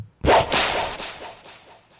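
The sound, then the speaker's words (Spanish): A single sharp whip crack snaps out loud, followed by a reverberant tail that echoes and slowly fades. No voices are present. “Ah, Latigazo para mí”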